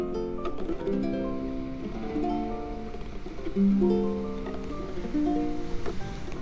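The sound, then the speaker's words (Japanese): A guitalele, a cross between a guitar and a ukulele with a ukulele's size and a guitar's tone, is strummed and picked on a beach in the evening, bright plucked notes ringing in a short melodic phrase over a steady wash of beach surf and wind, with no talking. “ギターといっても、えーと、ウクレレギターといって、えーと、ギターとウクレレの合いの子なんですがえっ、とウクレレの大きさでギターの音色がします。”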